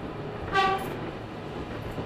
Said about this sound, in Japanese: 電車は紳士軍人学生らを乗せて飛龍のごとく走る。